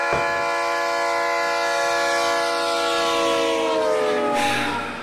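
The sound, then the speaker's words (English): A train horn sound effect, triggered by a stream's hype train: a loud, sustained horn blares with steady harmonic tones over the rumble of a rolling train, holding for several seconds before a brief burst of noise near the end as it fades. “Got a hype train going.”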